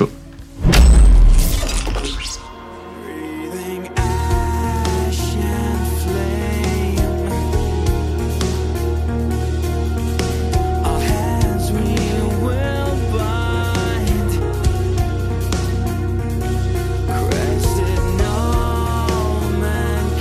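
A loud shattering crash opens, then a progressive metal track kicks in with dense, heavy distorted guitars and drums, playing loud and steady to the end with no talking.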